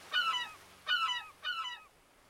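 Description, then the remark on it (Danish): Three loud, harsh herring gull cries ring out overhead in quick succession, each a short descending squawk with a nasal, harmonic tone, with no talking. “Med et skrig landede sølvmågen lige for fødderne af Anker.”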